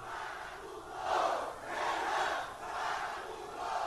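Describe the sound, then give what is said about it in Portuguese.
A large crowd in Alagoas, Brazil, shouts the rhythmic chant "Renan vagabundo" in unison, swelling in loud waves roughly every second, with a continuous roar of many voices underneath. “Ouça aí, ó, que loucura, meu filho. O pessoal tá gritando assim, ó.”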